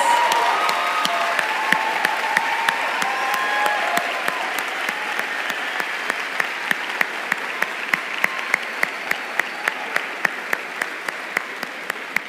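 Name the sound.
audience applause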